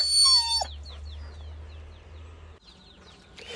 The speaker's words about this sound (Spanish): Te estaba saludando Henry, el perrito. Me habían dicho que había muerto, pero bueno, ha venido ya dos veces a saludar.